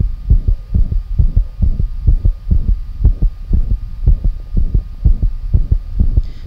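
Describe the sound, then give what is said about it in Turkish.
A stethoscope recording of a heart with a grade three soft murmur: steady, low thumping beats repeating in a regular rhythm, with a faint whooshing hum filling the gaps between them. “Bu duyduğumuz üçüncü derece yumuşak bir e, üfürümlü aslında.”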